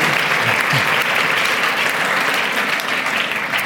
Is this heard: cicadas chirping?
no